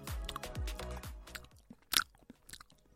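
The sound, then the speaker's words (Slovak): A voice imitates a coworker's loud, wet open-mouthed chewing, a rapid series of smacking, crunchy mouth sounds, ending with a sharper burst and a few softer smacks. “on má kolegyňu, ktorá nahlas prežúva”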